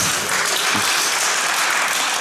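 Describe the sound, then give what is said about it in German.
A crowd at an evening panel event gives the first applause of the evening, clapping steadily, a dense wash of many hands applauding at full volume throughout, with no voices rising above it. “Berechtigter erster Applaus des Abends, vielen Dank.”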